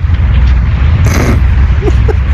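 An electric fan blows straight into the microphone, producing a loud, steady roar of rumbling wind buffeting that fills the whole stretch, with a faint voice murmuring briefly underneath near the end.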